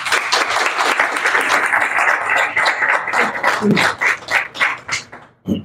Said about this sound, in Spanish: O sea, que ahora yo sí que le pido el aplauso, pero por esto que acaban de hacer, que es un documento maravilloso. A ellos cuatro.